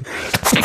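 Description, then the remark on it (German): A single sneeze: a quick breathy intake followed by a sharp, noisy burst of air that fades out in well under a second, with no talking around it. “Oh, Gesundheit.”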